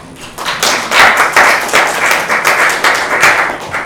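A crowd applauds steadily, many hands clapping in a dense, continuous patter that stays loud and close throughout, with no voices rising above it.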